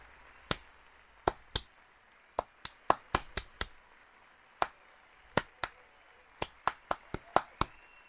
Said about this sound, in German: Da hört ja niemand zu. Die sind alle mit Klatschen beschäftigt.